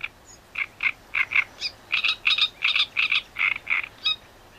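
A great reed warbler sings a loud, harsh chattering song of grating, croaky notes repeated in quick pairs and runs, with a few higher squeaky calls mixed in, with no talking.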